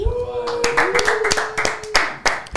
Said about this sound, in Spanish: vamos a dar un aplauso.